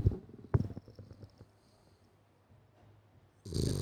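A dog lying asleep beside the speaker snores, with two rough, rumbling snorts followed by softer breathing, then a louder noisy burst at the end.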